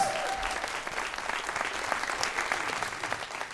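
Steady audience applause fills the space, a dense wash of many hands clapping at once, sustained and fairly loud throughout without any voices standing out.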